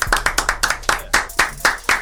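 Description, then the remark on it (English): A few hosts clap their hands together in a quick, steady burst of applause, fairly loud, with sharp claps repeating about every quarter second, celebrating going over 10,000 streams on SoundCloud in six months. “Can we just clap it up for that shit?”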